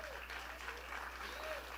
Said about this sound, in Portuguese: Eu vou repetir isso, porque esse aplauso tem que ser mais forte.